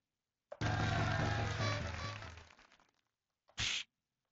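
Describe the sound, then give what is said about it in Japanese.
A loud, rich sound swells in and fades over a couple of seconds, then after a short pause comes one sharp, crisp, punchy tsukkomi (comedic retort) smack sound effect, a commonly heard one, with no talking. “これツッコミね。”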